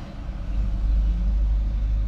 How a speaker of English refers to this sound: There's another truck goes by